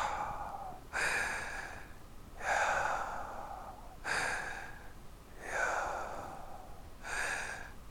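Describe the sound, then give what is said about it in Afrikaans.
A voice makes slow, rhythmic breathy sounds, about five airy inhale-exhale syllables in a steady pattern, fairly loud, imitating breathing to voice the Hebrew divine name Yahweh, written only in consonants. “met ander woorde dit klink soos asem”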